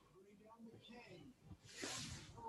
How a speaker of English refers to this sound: What's that sound going on? Uh, I was tuning my uh, TV because I wasn't happy with the signal strength I was getting.